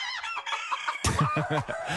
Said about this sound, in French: ça fait beaucoup de poules, ça fait beaucoup de caquettements.